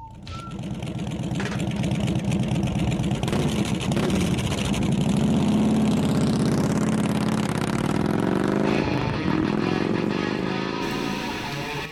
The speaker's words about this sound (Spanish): Y ahí vamos poniendo a punto las motos ya para salir a recorrer la noche